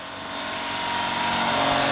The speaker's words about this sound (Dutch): dat zijn de compressoren. Oh, ja, ja. En die gaan ook toeren toeren gericht gaan ze. Je hoort hem nu, zeg Ja. En die kunt tot 20% draaien en dan gebruikt ze ook minder energie.